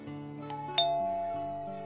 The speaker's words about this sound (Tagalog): At teka nga, bakit parang ang tagal namang lumabas ng bahay ng tita mo? Pindutin ko nga ulit yung doorbell.